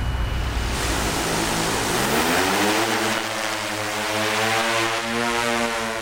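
A medium-sized six-rotor hexacopter drone carrying GPS antennas, a camera and a laser scanner spools up and lifts off over a maize field, its steady whirring propeller hum rising in pitch and settling into a loud buzz with broad noisy wash, no voices.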